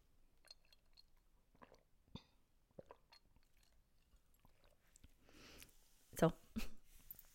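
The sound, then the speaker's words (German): Quiet sips of tea: soft mouth clicks and small wet sounds, then a brief airy slurp and a louder swallow near the end, with no talking. “Jetzt muss ich schnell einen Schluck Tee trinken.”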